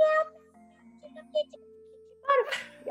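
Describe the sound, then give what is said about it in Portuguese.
A person imitates a cat named Sandra meowing in a small transport box during a car trip, letting out a couple of drawn-out, whiny meows, with a faint steady tonal hum running underneath. “E eu não dei nenhum floral nem nada pra O, a, a Sandra ficava miau,”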